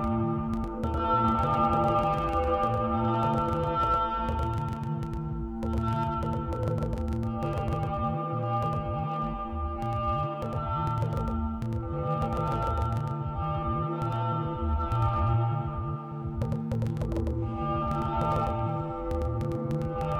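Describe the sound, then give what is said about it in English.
Yamaha DX7-style FM synthesizer tones play continuously, with bright, bell-like sustained chords layered over a pulsing, rhythmic bass line, steady and fairly loud with no one talking. “This is uh like Yamaha DX7 sounds.”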